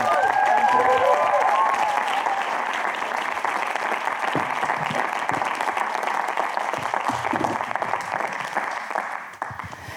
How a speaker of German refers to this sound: Lasst uns sie mit einem herzlichen Applaus begrüßen.